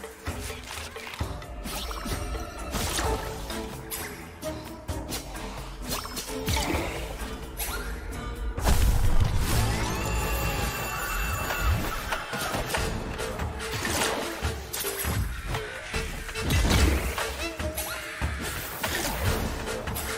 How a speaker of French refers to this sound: On va avancer un petit peu dans le jeu, que vous voyez du combat.